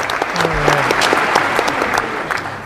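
A steady burst of applause from a group as a person enters, many hands clapping in a dense, even patter that stays loud throughout, with a brief low murmur at the start.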